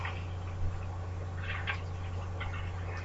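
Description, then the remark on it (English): Claws scrape and slide across window glass in a few short, scratchy bursts, fairly faint, over a steady low electrical hum with no talking. “It sounds like his nails are sliding.”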